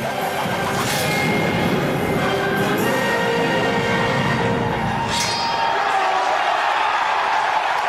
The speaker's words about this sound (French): Cette silhouette, cette capuche verte, ses cheveux blonds, c'est Link, le héros des jeux vidéo Zelda. Il est de retour et il a changé. Ses traits sont moins enfantins et les fans sont comblés, hurlent jusqu'à la fin de la bande-annonce.